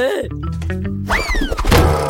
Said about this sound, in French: Aïe Aïe, j'avais mal. J'avais pas vu la chaise.